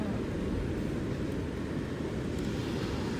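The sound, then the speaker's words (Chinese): Gentle sea waves wash onto a beach in a steady, soft roar, heard from a little distance back from the loud surf, with a low rumbling wash that never breaks into distinct crashes. No voices are heard. “海浪很大声，所以我是靠海浪有点距离才能跟大家录音分享，就听这个比较温柔的海。”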